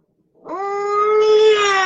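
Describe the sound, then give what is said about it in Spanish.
A voice imitates a baby about to cry: a single sustained, nasal whimper that starts after a brief silence, holds a steady mid pitch, and grows slightly louder and brighter. “y que cuando las guaguitas van, los bebés, para los amigos que no son de Chile, las guaguas son los bebés acá en Chile, cuando van a soltar el llanto, las guaguitas hacen,”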